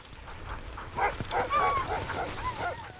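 A pack of sled dogs in Alaska barks, yips and whines in an excited, overlapping chorus, the calls rising and falling continuously at moderate volume with no one talking.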